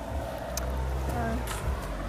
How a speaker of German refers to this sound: Oh, Auto